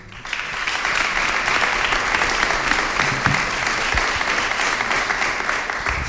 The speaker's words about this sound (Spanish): nuestro experto en patrimonio, al que también saludamos con un aplauso